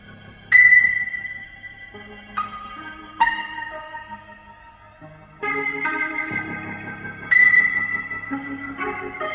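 A slow, spacious rock recording: bright, ringing ping-like notes strike over sustained keyboard chords and a low bass line, swelling in waves with no singing or talking.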